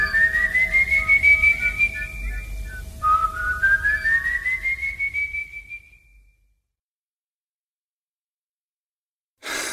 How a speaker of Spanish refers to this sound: recorre los campos en las noches de trueno con sus ropas harapientas, un sombrero de paja y un costal a la espalda en donde se dice que lleva los huesos de sus víctimas, pero lo más característico es su silbido que anuncia la muerte.